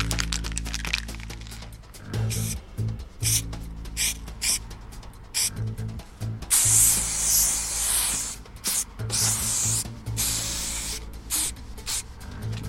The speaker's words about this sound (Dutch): Nee, nou, ik gebruik niet zo heel veel spuitbussen meer. Eigenlijk alleen nog in eh, ja, muurschilderingen, voornamelijk acrylverf. En de alleen nog voor effectjes.